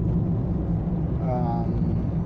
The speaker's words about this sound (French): j'ai beaucoup plus de choses à regarder, il y a beaucoup plus de circulation et ça me demande un petit peu plus de concentration.